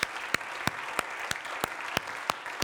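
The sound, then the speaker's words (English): An audience at a morning church service applauds in thanks in a steady wash of clapping, with one sharp clapper standing out in a regular beat about three times per second. No one speaks. “Let's give you a hand of applause this morning.”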